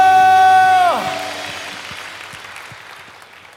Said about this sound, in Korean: 믿으시는 만큼 주님께 감사와 영광의 박수 올려드립시다. 할렐루야!